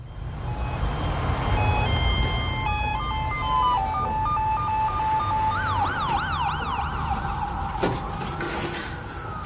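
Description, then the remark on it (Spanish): An ambulance siren sounds over low traffic rumble as the ambulance brings in a patient early on a Saturday morning. It starts as steady alternating tones, then switches to a rapid rising-and-falling wail. It is fairly loud and continuous throughout, with no voices. “La ambulancia trae a una chica y el médico me la presenta como alcoholizada.”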